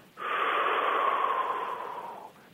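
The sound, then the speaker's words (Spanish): A single long, deep inhalation drawn in through the nose, a steady airy rush lasting about two seconds before tapering off, clear with no talking. “pues inhalas profundamente, y con el puro eh, sonido que genera tu inhalación profunda imaginas o visualizas la llegada de la ola a tus pies.”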